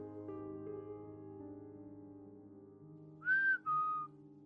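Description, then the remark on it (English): Two short whistled notes, the first a bit higher, rise clearly above a low steady hum near the end, following a stretch of quiet background drone; heard by investigators at the edge of a stage. “I just heard a whistle.”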